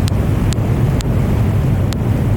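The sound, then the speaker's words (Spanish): Four sharp, brief echolocation clicks from a beaked whale feeding in darkness at a depth of at least 700 metres, picked up by a hydrophone, arrive at irregular intervals over a heavy, steady low underwater rumble. “Los pues chasquidos de ecolocalización. Ecolocalización”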